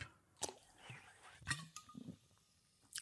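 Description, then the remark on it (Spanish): A quiet sip of sparkling water, a store-brand Vichy Catalan-type water (Malabella): a few short wet clicks and swallowing sounds spread over a few seconds, with no talking. “Déjame echar un trago de agua.”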